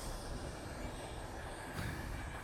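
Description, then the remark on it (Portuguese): A long train rumbles past, a steady, dense roar of wheels and carriages with no break over the whole stretch and no voices. “Desculpem lá o comboio outra vez. Epá, este comboio é da comprido, desculpem.”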